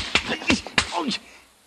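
Three sharp slaps to the face of someone being questioned land in quick succession, each a crisp smack, followed by a short pained vocal groan before things go quiet.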